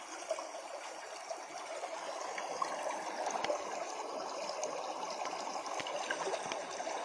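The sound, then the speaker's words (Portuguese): A stream flows steadily with a continuous trickling, babbling rush of water, moderately loud, with small splashes and gurgles throughout and no voices. “Caminhe nesse córrego e chegue até a terra do refúgio.”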